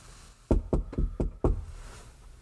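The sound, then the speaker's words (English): Five firm knocks by Ishmael on the locked wooden door of a room at an inn, near evening when it is dark outside, in a quick, slightly uneven rhythm, solid, followed by quiet room tone. “Ishmael is back at the inn and knocks on the locked door to their room where he left Queequeg that morning.”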